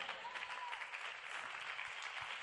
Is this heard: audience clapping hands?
yes